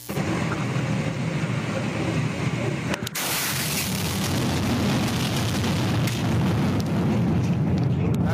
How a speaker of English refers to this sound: CJ actually has what a meteor sounds like.